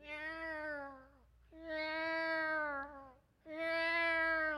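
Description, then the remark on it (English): A voice imitates a cat in heat with three long, loud, wailing yowls, each about a second long and sagging in pitch, separated by brief pauses. “I've seen the same thing with cats, especially cats in heat.”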